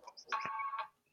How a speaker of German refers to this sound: das war ein Wecker.